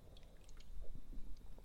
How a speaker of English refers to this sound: Delicious. Sorry, I hate the sound of people drinking on microphone, and I'm doing it myself.